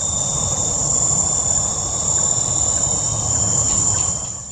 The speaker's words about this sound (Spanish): usted está o visita Colombia y le hablan de la luciérnaga, no necesariamente se refieren al insecto con capacidad de emitir luz y producir este sonido característico.